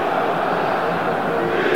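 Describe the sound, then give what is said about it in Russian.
A large stadium crowd of football fans roars and urges their team forward during a match between Spartak and Arsenal Tula, after their team has conceded a third goal: a steady, dense wash of voices that stays loud and unbroken throughout. “гонят, гонят болельщики свою команду вперед.”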